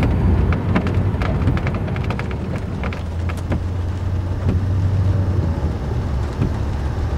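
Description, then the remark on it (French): Rain from an autumn thunderstorm patters steadily on a car windshield, with scattered sharp drops hitting the glass over a deep, continuous rumble of thunder and engine drone. No one speaks. “Encore plus avec cet orage d'automne qui grondait et la pluie qui commençait à tomber sur le pare-brise.”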